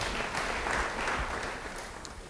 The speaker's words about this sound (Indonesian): beri tepuk tangan bagi Tuhan haleluya